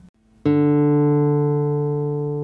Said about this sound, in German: Eine Gitarrenseite schwingt und erzeugt einen Ton, oder aber sie schwingt nicht und es ist still.